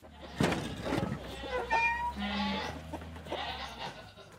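Several goats bleat in quick, overlapping calls, fairly loud, as they are brought back into the stable, with a steady low rumble of background noise underneath.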